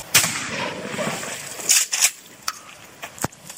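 A single loud shotgun blast fired at a bottle, which is hit: a sharp, booming crack that rings out and fades, followed by a few short, fainter clicks and knocks. No one speaks.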